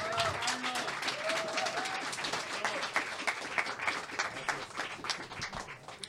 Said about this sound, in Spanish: Un gran aplauso y bienvenido